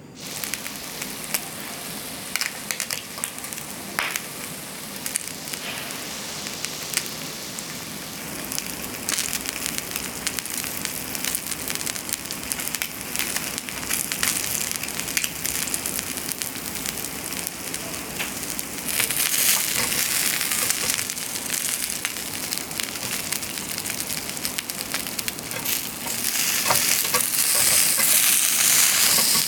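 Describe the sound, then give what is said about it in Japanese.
Fatty, in-season salmon sizzles steadily on a grill in the morning, a dense crackling hiss full of tiny pops that grows louder and brighter toward the end, with no voices. “今朝は油が乗った旬の鮭を焼くいい音それではお聞きください”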